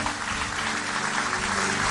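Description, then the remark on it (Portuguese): Steady applause from a church audience fills the whole moment, a dense, continuous wash of clapping with no gaps and even loudness throughout, applauding the Lord for the lives of men and women who gave themselves to the cause. “Eu queria que você aplaudisse ao Senhor pela vida desses homens e mulheres que se deram.”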